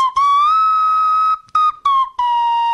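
A slide whistle plays a short solo tune, holding long, bright notes that bend gently up and down in pitch, with a few brief breaks between phrases.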